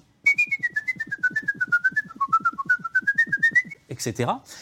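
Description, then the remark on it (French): A person whistles the Turkish March, a rapid, lively classical tune, dozens of quick articulated notes in a steady run, clear, ending with a brief burst of breathy noise. “en m'entraînant, par exemple, je siffle la marche turque, une musique qui va à toute vitesse”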